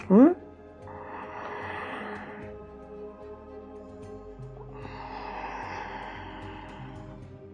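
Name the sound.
deep breathing demonstration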